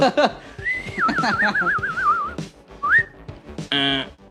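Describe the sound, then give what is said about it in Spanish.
Someone whistles an imitation of ringing the doorbell at a house: a bright, steady tone that wobbles up and down for nearly two seconds, then a short rising whistle, followed by a brief burst of voice. “Eh, a tocar el timbre, chistón, bien risible.”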